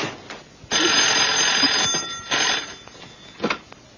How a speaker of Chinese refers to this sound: 哎， 电话。 来了来了。